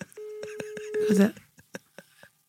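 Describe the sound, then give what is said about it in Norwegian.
A steady electronic tone runs for about a second, with a lower tone briefly joining it, alongside short clicky taps and faint voices in the background, like a phone dialing out. “Ok, da ringer jeg, da ringer jeg til eh, Jeg ringer bare Vent, da.”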